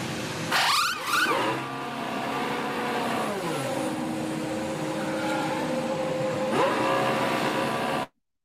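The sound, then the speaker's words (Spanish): A pit wheel gun shrieks sharply at the start as it polishes and strips a wheel nut during a race, leaving the gun nothing to grip, followed by a steady, shifting mechanical whine over loud car-like noise, with no one talking. “escuchéis el ruido que hace el pulimiento de esa tuerca”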